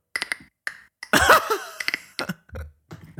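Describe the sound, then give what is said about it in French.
A person uses their mouth to imitate a clicking zombie-like enemy creature from a video game: sharp throaty clicks, a loud raspy gurgling burst, then more irregular clicks and croaks, alone with no speech. “tu devrais faire doubleur parce que tu fais super bien aussi le, bruit des ennemis dans The Last of Us. Les, les ou les claqueurs là”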